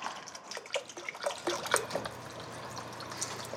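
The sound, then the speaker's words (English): About half a cup of wine pours into a braising pot of beef and beef broth in a short burst of splashing and trickling, fairly loud, then settles into a steady low bubbling murmur. No one speaks. “And then you wanna grab the wine, we'll add about half a cup of that.”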